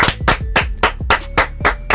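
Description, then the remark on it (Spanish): Steady, rhythmic clapping, roughly four sharp claps per second, loud and even, with a low thumping beat under each clap and no voices. “Pero yo nunca entiendo si cuando, o sea, cuando vienen columnistas, ¿aplaudimos o hacemos el eh?”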